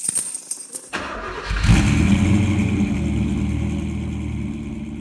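A few clicks and a cranking starter give way to a vintage car engine catching and revving, its deep rumble settling into a steady, loud idle.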